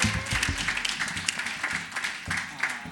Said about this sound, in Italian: Ma facciamole un applauso, eh, di scrivere così bene.